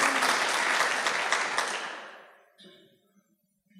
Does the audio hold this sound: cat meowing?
no